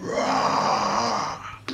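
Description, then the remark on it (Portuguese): A loud, drawn-out creature scream, harsh and wailing, from a creature just struck by a sword blow, holding steady for over a second before fading, followed by a brief sharp burst at the very end. “Então, você acerta essa espadada né? nele, ele dá um grande grito.”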